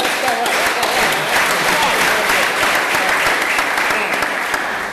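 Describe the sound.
Loud, sustained audience applause at a public lecture: many hands clapping in a dense, steady roar for the whole five seconds, with some voices mixed into the crowd.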